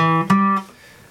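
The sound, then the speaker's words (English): A guitar sounds a minor chord, struck twice in quick succession, ringing clearly for about half a second before it cuts off into quiet. There is no talking. “Uh, it has three notes in it, it's a major chord, so it's a major triad with a minor triad on top.”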